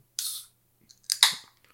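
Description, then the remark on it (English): A bitter beer can being handled: a short airy hiss, then a pause and a couple of sharp metallic cracks and crinkles. It's quiet, with no talking. “No, this this is a bitter beer can.”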